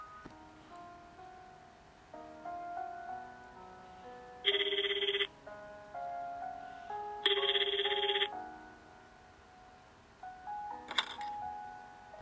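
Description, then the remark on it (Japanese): A landline telephone in a living room rings twice, each ring a short, bright trilling burst about a second long, spaced a couple of seconds apart over soft background music, followed by a faint clatter. “そんなことを思っているとリビングの電話が鳴った”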